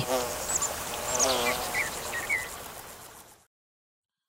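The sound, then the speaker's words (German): A flying insect buzzes for about three seconds, a steady droning hum with a few faint chirps in the background, then the sound cuts off abruptly into silence. “Ich habe jetzt kurz auch geschaut, ob da was im Studio bei uns fliegt.”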